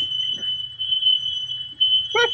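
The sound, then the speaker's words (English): A shrill, high-pitched alarm tone rings steadily through the whole moment over a low background hum, with a brief louder burst of noise near the end and no one talking. “is someone's uh, house on fire?”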